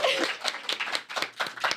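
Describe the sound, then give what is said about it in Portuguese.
An audience at the Cine Clube Cortina, a venue combining music, food and cinema, applauding: a steady patter of many hands clapping at once, bright and crisp, holding a fairly even loudness throughout with no voices over it. “Finalmente chegou as palmas da plateia.”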